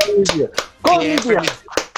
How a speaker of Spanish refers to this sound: Un aplauso para él.